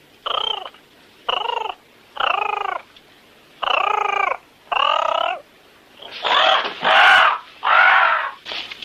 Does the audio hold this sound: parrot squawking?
yes